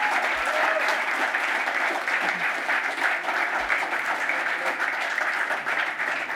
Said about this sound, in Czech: A to je opravdu něco, co stojí za potlesk.